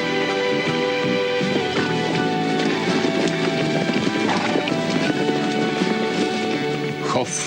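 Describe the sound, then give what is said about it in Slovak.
English thoroughbred horses from the breeding program of the Slušovice agricultural cooperative in Czechoslovakia trot with a steady clip-clop of hooves and an occasional neigh, set against a dense, continuous background where a voice can be heard talking over the scene. “Agrokombinát Slušovice svým chovem anglického plnokrevníka přispívá k růstu a zvyšování úrovně jeho československého chovu.”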